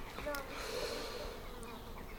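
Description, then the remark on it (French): Bees buzz in a steady, continuous drone, circling around, their pitch wavering slightly as they move, over a soft outdoor background hiss. “Faites attention, il y a des abeilles qui tournent, il faudrait fermer la, la moustiquaire.”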